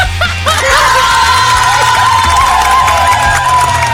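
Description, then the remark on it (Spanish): A loud crowd cheers and applauds continuously, with whoops and shouts rising over dense clapping for the full few seconds. “Y este aplauso es para Ben Affleck.”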